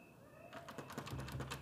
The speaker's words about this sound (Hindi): अरे ये क्या हो रहा है यार ये, ये दरवाज़ा खुल क्यों नहीं रहा है